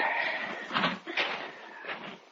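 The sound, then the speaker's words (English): Huge, heavy wooden doors, slightly ajar at the entrance of a gray building, are pushed open with effort, giving a drawn-out scraping groan and a few dull knocks as they swing, with no one speaking. “The huge wooden doors were slightly ajar at the entrance, and with an effort, Mark pushed them open and led us inside.”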